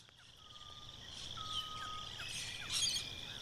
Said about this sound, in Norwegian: Fuglesang fremmed for meg.